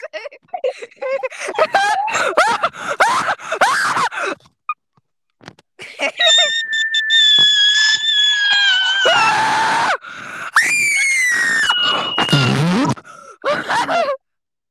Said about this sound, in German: ich nenne es nicht Laberfolge, sondern Schreifolge